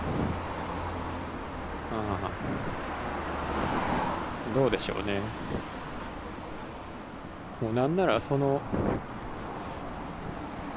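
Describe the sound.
A steady low rumble of road and wind noise fills the cabin of a moving rental car, loud and continuous, while a man talks intermittently over it.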